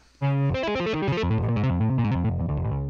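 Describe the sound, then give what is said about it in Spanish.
An electric guitar sound effect plays a quick, distorted riff, bright harmonic-rich notes shifting up and down in a steady rhythm after a brief quiet start, loud and with no voices. “Si ella de repente agarra eh, una guitarra.”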